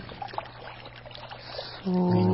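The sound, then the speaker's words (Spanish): Water spills and trickles steadily from an overflowing jug (cántaro) onto the wet floor, a soft irregular splashing. Near the end a loud, low, buzzing tone suddenly cuts in and holds over it. “El cántaro se desborda, haciendo rodar el agua”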